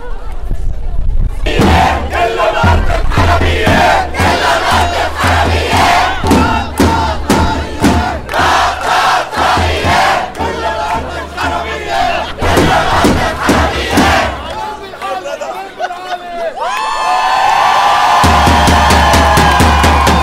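A large crowd at a solidarity protest for Lebanon in Melbourne chants in loud, rhythmic unison, voices rising together with sharp repeated beats, before the chant fades and a single amplified voice with a sustained tone takes over near the end.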